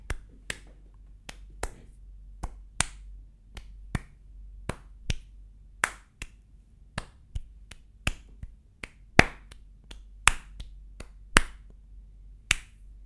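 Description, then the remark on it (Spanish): Rhythmic hand clapping in flamenco palmas style, demonstrating 'palmas del cross' with intention in the movement, a steady run of sharp claps roughly twice per second with some louder accented beats, played alone with no voices. “¿Y cuáles son las palmas del cross? son, es precisamente esto de tener una intención en el movimiento.”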